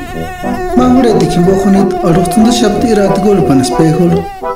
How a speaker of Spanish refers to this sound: Un zancudo se le paró en su nariz. A mosquito landing on his nose. Mientras él continuaba peinando su cabello, movió la nariz para ahuyentar al mosquito.